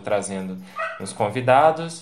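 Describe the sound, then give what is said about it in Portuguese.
A dog barks and yips a few times at home, fairly loud, overlapping with a person speaking. “É, desculpa o cachorro que acabou de latir aqui, mas é que a gente está nessa situação de pandemia, né?”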